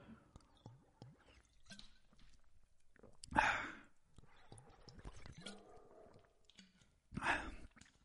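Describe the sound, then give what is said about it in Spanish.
Someone takes quiet sips of water in a family house in a village, with soft wet swallowing sounds and two louder breathy exhales between them. No one speaks. “Déjame ver un poquito de agua.”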